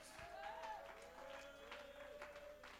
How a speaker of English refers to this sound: Somebody ought to clap your hands and give God a shout of praise.